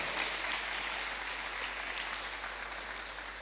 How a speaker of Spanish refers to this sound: ¿Cuántos dicen amén a eso? Sí, Señor. Dale ese aplauso al Rey.